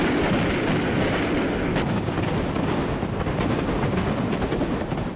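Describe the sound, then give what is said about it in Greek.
Homemade explosives, fireworks and molotov cocktails burst in a dense, continuous barrage, their booms and cracks blurring into one loud, rumbling roar that barely lets up, in the street outside the Church of the Holy Ascension in Neos Kosmos at midnight on Holy Saturday, during an Easter Resurrection custom. “Ο δρόμος έξω από τον Ιερό Ναό της Ανάληψης Κυρίου μετατράπηκε για μία ακόμη φορά σε εμπόλεμη ζώνη, με τις μολότοφ να πέφτουν βροχή.”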